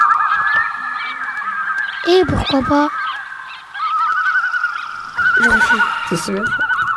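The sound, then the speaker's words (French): Geese honk loudly and continuously in a raucous flock, with overlapping wavering calls throughout, while a person briefly speaks over the noise in the middle; from a sound piece titled "Les oiseaux" by Na Production. “Les oiseaux, un son et une action euh, signée Na Production, Na.”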